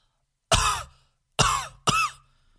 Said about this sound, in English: cough. Oh, big cough.